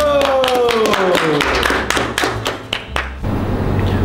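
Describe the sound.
Steady hand clapping, a run of sharp even claps for about three seconds, with a voice and a sliding tone underneath before the clapping stops and a low murmur remains.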